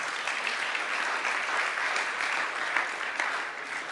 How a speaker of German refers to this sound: Das ist auch das, worauf ich gleich, ähm, ja, erstmal einen Beifall.